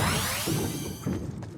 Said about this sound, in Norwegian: Lyden du hører her, kommer fra Fortnite, skytespillet som i løpet av 2018 har tatt over tronen som verdens mest populære spill.